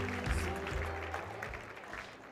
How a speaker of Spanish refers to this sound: Ahora dale un fuerte aplauso, Señor, y ponte, ponte.